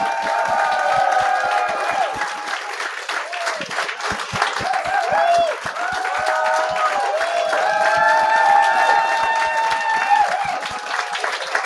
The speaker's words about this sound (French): J'aimerais ça qu'on leur donne une bonne main d'applaudissement pour la centième.